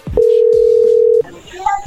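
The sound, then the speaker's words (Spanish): A steady, loud telephone tone while a call is being placed holds one flat pitch for about a second, then cuts off abruptly, leaving faint background noise and a few soft blips. “Márcale, carnal, por favor.”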